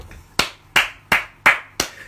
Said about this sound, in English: I think, I think, uh, I think our white friends deserve a round of applause, mind if you don't if you mind yeah, let's, hear it for these let's hear it for these white folk.